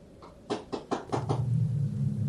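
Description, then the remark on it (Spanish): Five quick, evenly spaced knocks on a door, moderately loud, then a low steady hum continues after the last knock. “Alguien volvió a tocar a la puerta, pero esta vez escuché la voz de mi mamá.”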